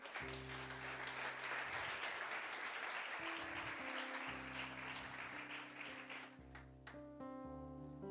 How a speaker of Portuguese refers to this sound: Se você está me entendendo, aplauda ao Senhor.